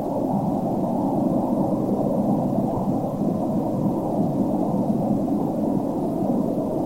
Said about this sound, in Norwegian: Eh, så jeg hadde lyst til å spille litt av min favoritt, som er Brown Noise Cold Plunge. Ja, den har jeg hørt mye bra om.